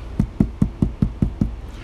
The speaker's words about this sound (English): and then all of a sudden the door is knocking.